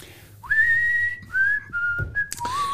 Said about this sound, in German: Und echt die Pfeife-Einlage dort, die finde ich so, die stellt einem so richtig auf.